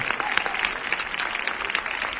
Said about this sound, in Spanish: Un aplauso fuerte, hombre, María Auxiliadora.